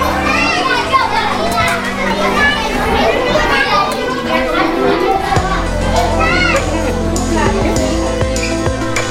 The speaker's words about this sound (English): This is the sound of children playing at COTN School in Don Bosco.